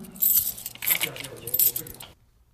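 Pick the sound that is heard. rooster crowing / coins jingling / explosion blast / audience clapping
coins jingling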